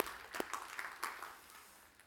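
An audience at a mission church in Kristiansand applauds the winning side, scattered claps overlapping into a soft, steady patter that fades slightly by the end. It sounds fairly quiet, with no one speaking.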